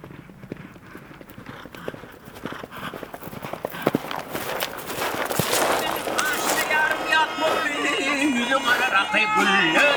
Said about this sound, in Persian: اینجاست که میگیم این سرزمین پر هست از خاطرات مردان و زنان ترکمن صدای پای اسبهای ترکمن و صدای ناب دوتار ترکمن